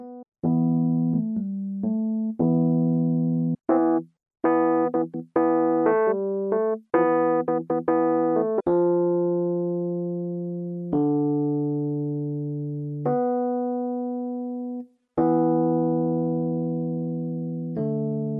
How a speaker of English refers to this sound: Lounge Lizard delivers authentic classic electric piano tones with outstanding sound quality, action, and feel. If you're looking for some great electric piano sounds, this plugin is for you.